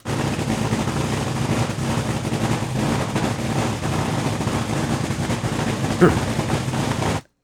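A dragster engine roars loudly and steadily for about seven seconds, a dense, rumbling drone with a brief spike near the end before it cuts off abruptly.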